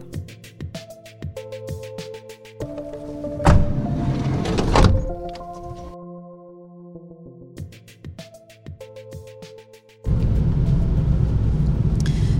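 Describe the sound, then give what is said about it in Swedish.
Inside a car driving back into Visby in the evening after a work shift: humming tones and a few clunks and door-like thuds, then from about ten seconds a loud, steady engine and road rumble as the car drives. No one speaks. “nu sitter vi här i bilen på väg tillbaka.”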